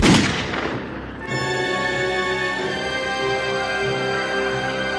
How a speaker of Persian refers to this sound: مرد با خون سردی از درون پالتو هفتیرش رو بیرون کشیده و بدون فوت وقت با صدای شلیک گلوله کار پیرزن را یک سر ساخت